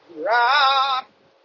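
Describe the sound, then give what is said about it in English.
A single drawn-out moo from a brown cow, loud, rising slightly in pitch and lasting just under a second, with no talking around it. “Oh, a cow! A brown one.”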